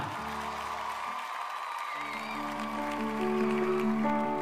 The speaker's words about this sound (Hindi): mister Singhania के इतना कहते ही तालियों की गड़गड़ाहट हुई